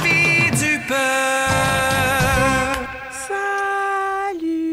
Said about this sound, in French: Elle a son propre jingle, ah, mesdames et messieurs.